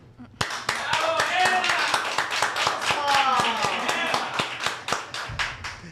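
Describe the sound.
Brisk, steady applause from a small group, sharp regular claps continuing for several seconds while voices talk and call out over them before the clapping tapers off.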